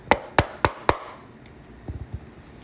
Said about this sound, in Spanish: Se dirigió a la de paja y llamó a la puerta.